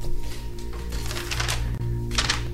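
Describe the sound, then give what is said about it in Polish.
Paper notes rustle and crinkle in a few short bursts over a steady low electrical hum, with no one speaking. “No właśnie, szelest notatek, szelest notatek, słuchajcie, szelest notatek.”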